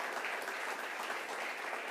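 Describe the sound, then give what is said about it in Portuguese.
An audience applauding steadily to Jesus for the pastors, a dense wash of many hands clapping together, sustained and even for the whole stretch with no voices standing out. “Dá um aplauso, a Jesus, pelos pastores aí, das Efraíns.”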